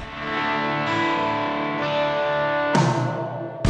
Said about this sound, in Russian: поставить песню я с удовольствием э, поставлю.